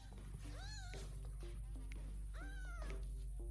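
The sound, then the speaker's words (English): Kittens meowing in high, thin calls, two clear meows about two seconds apart, over a steady low background hum with scattered faint clicks and knocks. “Man, it really wants to play with those kittens, though.”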